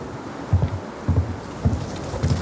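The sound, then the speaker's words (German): A storm at sea around a ship: steady rushing rain and wind with heavy low thumps of surging water breaking in every half second or so, loud, with no voices. “Sein Kommandant steht auf der Brücke und brüllt gegen den Sturm.”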